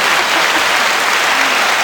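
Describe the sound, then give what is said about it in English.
A burst of recorded applause played from a soundboard, steady and dense throughout, with many hands clapping at once like a large crowd. Loud and continuous with no talking over it. “Just give an applause and another applause”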